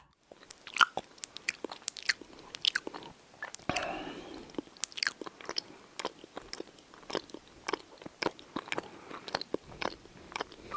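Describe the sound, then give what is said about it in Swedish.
Loud, wet open-mouth chewing of food with sharp lip smacks and crunchy bites, repeating in a quick, irregular rhythm, with no talking. “Alltså smaska, prata i mun med så här, när man har mat i munnen och så här, tuggar äh. högt.”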